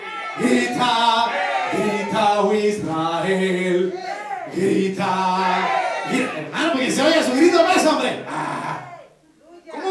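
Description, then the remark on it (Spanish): A large crowd shouts and cheers loudly all at once, a dense, sustained roar of many voices with rising and falling whoops, fading briefly near the end before surging again. “¡Grita! Al sonar las trompetas, gritará el pueblo, gritará.”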